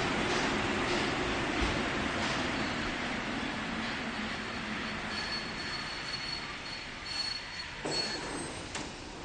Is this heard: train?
yes